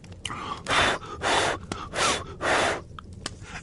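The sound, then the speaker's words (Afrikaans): Four long, breathy blows of air on fine grass around fire sticks in the veld to kindle a small flame, each lasting about half a second with short pauses between, steady and fairly loud. A few faint clicks and crackles sit in the gaps. “Toe daar rook verskyn, blaas hy op die fyn gras om sy stokkies totdat daar 'n klein vlammetjie verskyn wat later 'n vuur word.”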